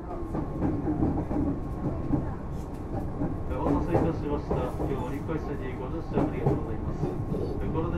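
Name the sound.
train running on rails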